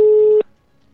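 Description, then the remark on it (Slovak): A steady, fairly loud telephone ringback tone on an outgoing call from a studio to a prize winner in Trenčín plays as a single beep lasting under half a second, then cuts off into near silence, with no voices present. “Zvoníme, zvoníme.”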